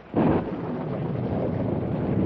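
A sudden, loud crack of thunder from a lightning strike during a storm bursts in and rolls on as a deep, sustained rumble, with no voices over it.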